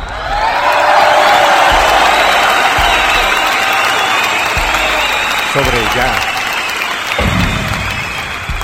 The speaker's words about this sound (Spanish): público conocedor, que se escuche fuerte el aplauso.